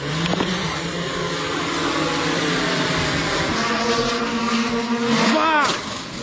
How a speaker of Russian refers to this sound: Это запуск дрона пятилетней давности.